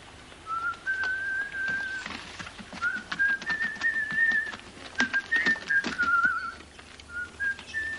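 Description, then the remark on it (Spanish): A man riding a donkey whistles a wavering, tuneful melody in several long phrases, over a busy background of clatter and rustling noise. No one speaks. “Sancho mira a la persona que silba.”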